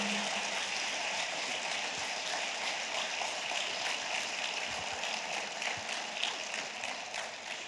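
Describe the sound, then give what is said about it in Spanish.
A crowd applauds steadily, a dense, crackling wash of many hands clapping at once with no pause, holding at an even loudness throughout and no voices heard over it. “Y óyelo bien, si vas a aplaudir, aplaude bien en esta hora.”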